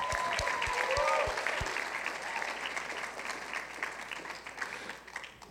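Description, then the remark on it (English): An audience bursts into sustained, dense, loud applause lasting several seconds as the next speaker is introduced at a gathering, with a few cheering voices rising early on before the clapping gradually thins. “So next up, y'all give it up for”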